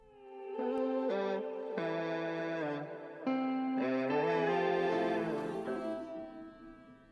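A pop song plays loudly and steadily on a radio broadcast, with layered, effects-heavy melodic tones shifting between chords in a few distinct sections, with no one talking over it.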